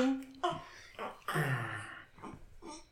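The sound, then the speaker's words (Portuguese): A baby girl babbles close to the microphone in a handful of short, high-pitched vocal bursts with brief pauses between them, fairly loud and clear. “Põe ela aqui ao pé do, do microfone. Vão ouvir a nossa bebê.”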